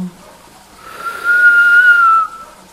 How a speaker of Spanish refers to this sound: Último ciclo. Inhala en forma de silbido.